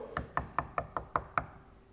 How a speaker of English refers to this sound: And Moses comes and he knocks on the door.